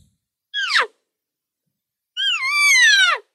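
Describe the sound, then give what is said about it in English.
Two high, nasal elk cow mews blown on a bite-and-blow call, a short one and then a longer whiny one that slides down in pitch, loud, separated by a brief pause. “And here's another bite and blow.”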